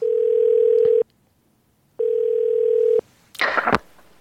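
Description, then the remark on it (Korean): Two loud one-second pulses of an outgoing-call ringback tone separated by a pause, then a short burst of rustling noise as the line seems to pick up. “자, 전화 갑니다.”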